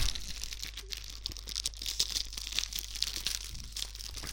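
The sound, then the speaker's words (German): Crinkly plastic packaging being opened, a steady run of dense crackling and rustling with sharp crisp snaps, fairly quiet over a low steady hum, with no talking. “Nee, ich mache mir eine, Schach, eine Packung auf hier.”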